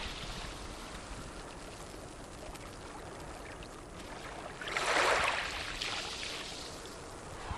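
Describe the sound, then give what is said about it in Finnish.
Steady hiss of water, with a wave surging up onto a shallow sandy beach about two-thirds through, then a softer wash draining back. No voices, just continuous lapping water with a few bubbles in it. “Luulee kuulevansa, kun näkee, että aallot tulee rantaa, vähän on kuplia vedessä ja tulee tämmöiselle matalalle hiekkarannalle. Ja vesi tulee ylös ja vetäytyy alas ja ihan kuin pienet pienet hiekanjyvät pyörissä siinä rantaviivassa.”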